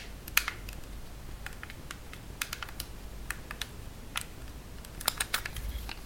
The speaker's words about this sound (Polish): To znaczy Szczególnie czeszczy klapka, pod którą jest y, bateria z tyłu. Jak pokażę, y, to chyba będzie słychać, jak trzyma się tego zooma w ręce, czy nawet naciska przyciski jakieś.